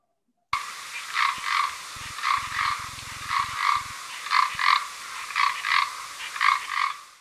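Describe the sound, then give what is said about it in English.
A great green bush cricket sings loud, a rasping, buzzy trill that pulses in steady repeated bursts, often in pairs, with no voices over it. “You'll pick on great green bush cricket because that's nice and loud”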